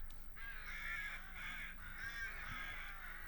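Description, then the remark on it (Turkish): Several crows caw harshly in overlapping bursts, loud, with a steady low hum underneath. “Dallarına deli deli kuşlar konar.”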